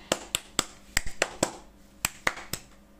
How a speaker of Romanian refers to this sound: Toată lumea a bătut din palme